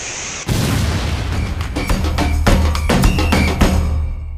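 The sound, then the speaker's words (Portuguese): A burst of gunfire in a country in the middle of a war: several sharp, loud shots cracking out at irregular intervals over a constant low rumble, with no voices. “Mas não demorou muito pro Marreco se tocar que eram tiros.”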